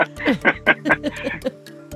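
A rapid, steady ticking of a clock, about five ticks per second, fairly loud over a sustained low tone, then thinning out toward the end.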